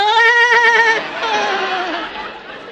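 A female goat bleats twice with a quavering, nasal tremble: one loud sustained cry lasting about a second, then a longer, wavering call that gradually fades. No one is talking.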